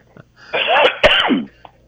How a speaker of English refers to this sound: Excuse me, I swallowed wrong. Forgive me, I'm about to cough in your air.